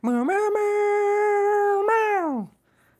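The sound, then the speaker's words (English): A person imitates a dog's howl with one long, loud, sustained vocal note that rises slightly at the start, holds steady for about two seconds, then slides down and fades out. “it's w- all when they're like the dogs are howling.”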